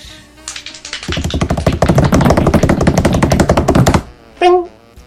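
A hand bangs rapidly on a table in a fast, steady drumroll of loud thumps lasting a few seconds, then stops, followed by a brief high vocal sound.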